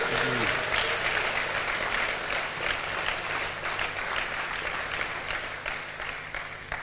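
An audience applauds steadily for several seconds, a dense, loud wash of clapping that stays even throughout, with a brief low voice at the start.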